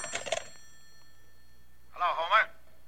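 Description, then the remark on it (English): A telephone bell gives one short, rattling ring near the end, clear, after a brief burst of sound at the start and a quiet pause. “It was the next afternoon, a Saturday, that the phone rang.”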